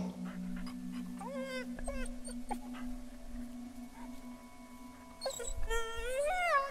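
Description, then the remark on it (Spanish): A nervous dog named Golfo gives high-pitched, whiny yelps and barks in two bursts, with a steady low hum underneath and no talking, barking anxiously toward a ball it dares not fetch. “El perro continuó ladrando, nervioso.”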